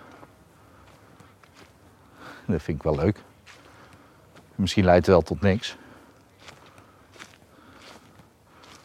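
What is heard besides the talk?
footsteps walking on a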